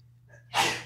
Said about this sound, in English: Look, bless you